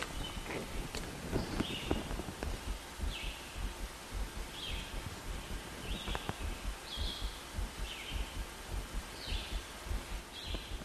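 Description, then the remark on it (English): Morning birdsong outdoors: short, bright chirps repeating about once a second, over a low bed of rustling and soft footstep-like thuds, with no talking. “We have been crying, we have been suffering, and in the morning they sing and they chant and they are happy, they make us rejoice.”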